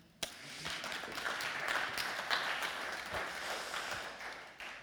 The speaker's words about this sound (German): Ein Applaus für dich.